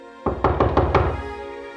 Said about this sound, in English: But before either could say anything more, there was a knock at the door.